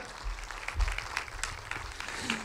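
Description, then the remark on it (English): An audience applauds the band on Christmas morning in a steady wash of overlapping claps, moderately loud with a few sharper individual claps standing out, lasting a couple of seconds. “Can we give the band another hand?”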